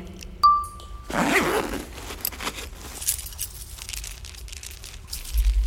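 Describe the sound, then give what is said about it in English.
A small paper packet of seeds is rustled and crinkled, with a loud burst of handling followed by scattered soft crackles and faint rattles, and no talking. “What's that? Oh, yes, the seeds.”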